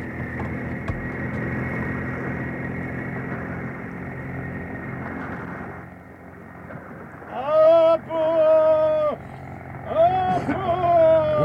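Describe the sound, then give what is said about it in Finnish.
A motorboat engine runs with a steady, loud, rumbling drone for about six seconds, then fades as voices call out in short bursts. “Ja nyt moottorin kimppu.”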